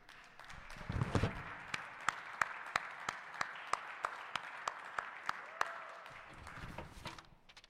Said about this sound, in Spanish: Un aplauso ahí para que se despierten. Si ese aplauso es para mí, gracias. Si ese aplauso es para el Rey de Reyes, se lo puede dar más duro.